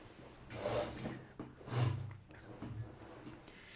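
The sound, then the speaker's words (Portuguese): A chair scrapes forward across the floor in a few short, rough drags as it is pulled forward, moderately loud, with brief pauses between the pushes and no talking. “e eu preciso puxar a cadeira para a frente”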